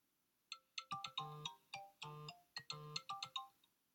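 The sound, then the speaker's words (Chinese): A bright electronic phone ringtone for an incoming call plays a quick, bouncy melody of stacked chiming notes in short rhythmic bursts, with a few sustained tones mixed in, and no one talking over it. “不好意思，我接个电话。”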